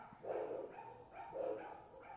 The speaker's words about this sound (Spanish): y un saludo a esos pinches perros que están ahí ladre y ladre es el Cyrus.